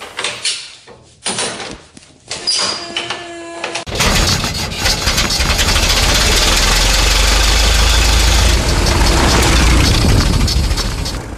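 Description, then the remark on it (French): An old Ford Model T engine is hand-cranked at the front with a few clunks and a brief whine, then catches and runs, idling loud, rough and steady with no talking. “Ce que vous venez d'entendre est un fort de thé, vous avez déjà vu la décapotable française ou américaine des années 20 avec son démarrage à la manivelle à l'avant Bon, eh bien, la Ford T, c'était un peu ça.”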